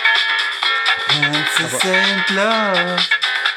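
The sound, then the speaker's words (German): A song with a gliding sung melody plays steadily from a cassette, sounding thin and boxy with the bass stripped away, as if a filter were pushed down, like music coming through a small radio speaker. “Lustig auch, das hört sich an, als ob da gerade so der Filter runtergedrückt wurde, dass, dass es sich so wie so ein Radio anhört, aber das ist ja genau der, der Sound von früher.”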